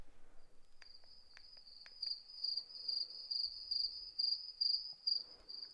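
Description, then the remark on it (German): A played cricket sound effect: crickets chirp in a steady, high-pitched trill that carries through the whole stretch, pulsing rhythmically and slightly louder in the second half, with a few faint clicks early on and no voices. “das Grillengeräusch ähm, raussuchen, was es gibt.”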